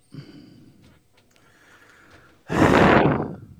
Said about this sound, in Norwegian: Ikke pust så tungt, da. Det, det bråker så fælt. Det var ikke meg. Jo, det var deg. Det er alltid han nede i hjørnet.